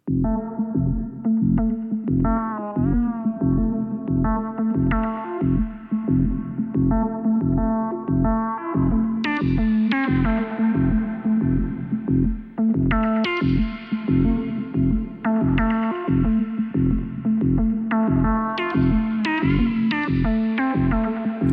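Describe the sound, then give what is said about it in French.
Instrumental synthesizer music made using Ableton's Operator synthesizer and Echo delay: a steady pulsing bass pattern and bright synth tones trailing off in echoing repeats, loud and continuous with no voices. “cet album a été conçu exclusivement en utilisant Operator, qui est un des ah, synthés de base d'Ableton, et Echo”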